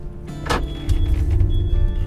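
A truck reversing as it is being parked: a low, steady engine rumble with a thin high-pitched tone sounding in two long stretches, and a brief hissing burst near the start. No one speaks.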